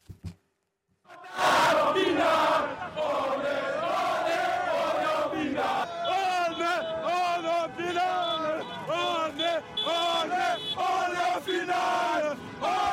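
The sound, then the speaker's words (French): A large crowd of French football supporters, celebrating France reaching the World Cup final against Argentina, cheers and chants loudly and continuously, many voices shouting together in rising, wavering bursts, sustained after a short quiet start. “La joie de tous les supporters.”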